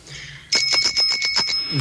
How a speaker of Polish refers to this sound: Dzień dobry z rowerowym dzwonkiem. A już myślałem, że zabraknie.